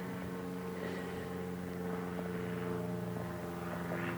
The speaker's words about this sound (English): I don't know if you can hear that plane.